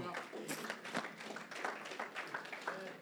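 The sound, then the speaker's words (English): A crowd claps steadily together for the Lord while the speaker has a drink of water, a dense, continuous patter of many hands, with faint voices and murmurs mixed in beneath it. “Why did you clap for the Lord while I have a drink of water?”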